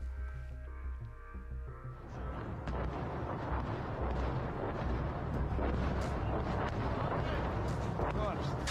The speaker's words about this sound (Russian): Ну и слышно, слышно, как э, гремит в городе, это бьет наша артиллерия, и наступают штурмовые отряды, соответственно, под прикрытием.